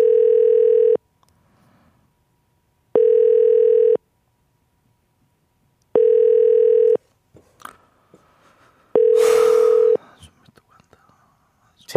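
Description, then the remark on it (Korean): A telephone ringback tone of an outgoing call repeats four times, one-second steady beeps separated by two-second gaps, clear, with faint whispering and rustling between the last rings. “가면 두 번째 바로 전화갑니다.”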